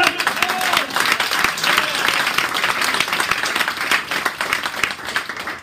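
Loud, sustained applause from an audience, dense clapping steady throughout with faint cheering voices mixed in.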